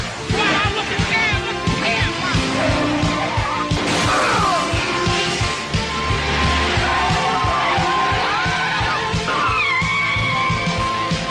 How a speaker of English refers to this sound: drop kicked a cop car? What is this? It's like we're at war.